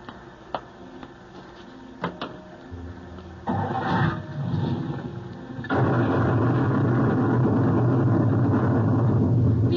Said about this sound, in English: Just as we left the coach, sir, a bolt of lightning struck. Lucky we weren't all blasted into the next world.